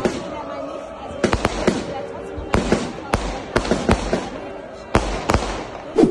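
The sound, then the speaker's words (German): Fireworks explode in a rapid irregular series of sharp, loud bangs over a constant rumble of crowd noise and voices in the background. “Bisschen Feuerwerk gab es auch.”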